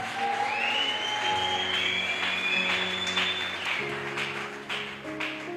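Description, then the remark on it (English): A church audience claps for a bishop's teaching in steady, dense applause for several seconds, a continuous crackling wash of many hands, with a faint high tone and organ-like held notes underneath. “Let us give the bishop for a hand clap applause of, for that great revelation.”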